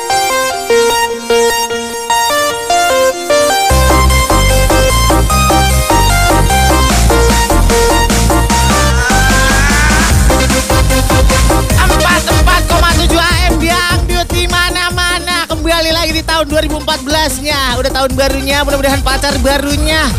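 A dangdut song plays loudly and steadily, with a sparse melodic intro before a thumping rhythm, bass and bright melody kick in after a few seconds and carry on throughout.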